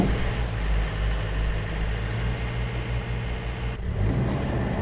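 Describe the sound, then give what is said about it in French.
A boat engine runs steadily at low revs, a deep continuous rumble with a faint change in tone near the end as the boat, a traditional local type of the gulf, casts off and eases into reverse. No one speaks. “Et vas-y, largue. Petite marche arrière.”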